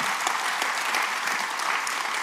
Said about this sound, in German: Come on, geben wir dem Herrn einen richtigen Applaus dafür.